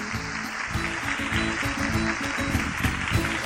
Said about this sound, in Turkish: Onları kocaman bir alkışlayalım bakalım. Hadi bakalım.